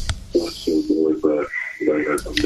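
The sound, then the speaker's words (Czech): A radio plays in the background of a caller's phone line, its muffled, echoing voices coming in a steady run of short, tinny bursts at moderate loudness. “Ale sklumte si to rádio za sebou, nebo to nebude slyšet.”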